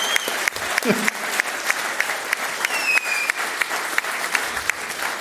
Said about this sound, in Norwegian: Han fortjener en applaus. Ja, han fortjener applaus.